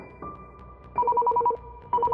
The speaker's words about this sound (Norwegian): Klokka er blitt 23.30, og beredskap holder på å avslutte kvelden og komme seg i seng. Så går alarmen. Fjerde etasje i Grønnegata 103 er overtent.